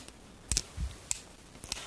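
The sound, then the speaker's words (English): Rhythm sticks tap together in short, crisp clicks during tapping practice: a quick double tap, a single tap, then another double tap, spaced about half a second apart. The taps are fairly quiet, with no talking. “now I need you to practice twirling your sticks around each other”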